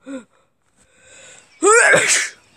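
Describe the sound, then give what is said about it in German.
A single loud sneeze bursts out after a short quiet intake of breath, a sharp noisy explosion that trails off quickly. “Ich musste gerade niesen.”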